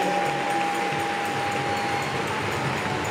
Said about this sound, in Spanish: Dele una ofrenda de palmas al que vive y reina por los siglos de los siglos. Vamos a darle más fuerte esa ofrenda de palmas a quien lo merece.